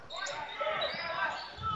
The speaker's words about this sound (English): So Elm Creek with the dribble.